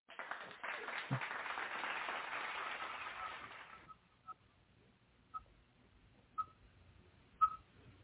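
A burst of crowd applause, played as a sound effect for a phone-in caller, lasts about four seconds, then cuts away to near silence broken by a few faint, short tonal blips spaced about a second apart.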